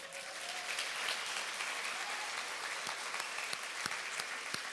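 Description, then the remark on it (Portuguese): A large church audience applauds loudly at the call to clap if sure Jesus is happy with them, a steady, dense wash of clapping that holds at full strength throughout, with a few sharper individual claps standing out and no speech. “E aquele que tem certeza que Jesus está feliz com ele, dê um aplauso bem forte.”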